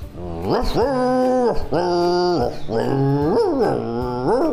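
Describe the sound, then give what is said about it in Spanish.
A person using their own voice to make a loud run of melodic dog-like barks and howls: four sustained, tuneful yowls that swoop up and down in pitch, one after another with brief breaks between them. “¡Qué divertido puede ser usar nuestro cuerpo para hacer sonidos, como mi ladrido melódico!”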